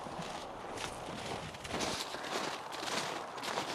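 horse hooves walking

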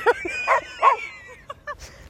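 dog barking

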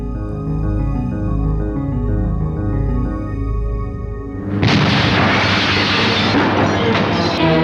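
large explosion

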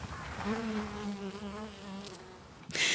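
bees buzzing

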